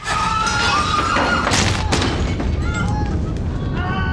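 Cannon fire booms twice in quick succession amid a dense, noisy backdrop of rumbling and tonal sounds, the blasts loud without standing far above the continuous clamor.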